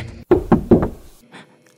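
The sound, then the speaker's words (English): Four firm, fairly loud knocks on a front door in quick succession, with a slightly uneven rhythm, followed by a quiet, fading tail and no voices. “I hear someone at the front door.”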